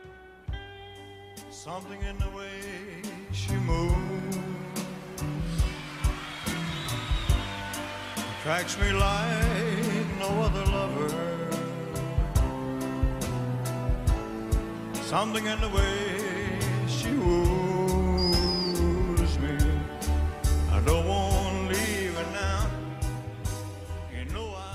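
A recorded cover of a pop song plays throughout: a sung melody over a full band with a steady drum beat, sustained chords and bass, at an even, fairly loud level with no talking.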